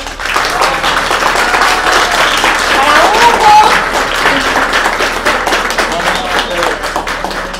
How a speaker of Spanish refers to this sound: Muchas gracias. Un aplauso para el contador.